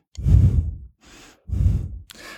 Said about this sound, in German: Und wenn man so über ein Mikrofon äh, atmet, ich demonstriere das gleich, man macht es normalerweise so.